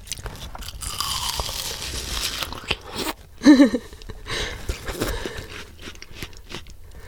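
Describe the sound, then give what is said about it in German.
Wet, juicy biting and chewing of watermelon, with repeated crunchy bites and slurpy mastication sounds, plus a brief short vocal tone in the middle. “Ess noch ein Biss.”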